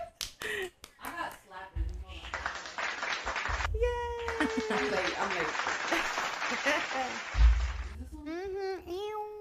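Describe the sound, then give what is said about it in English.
An applause sound effect played to welcome a show's first guest: a dense, steady wash of crowd clapping that runs for several seconds, with voices chatting and laughing over it before and during the cheering. “Y'all hit the, hi, the applause.”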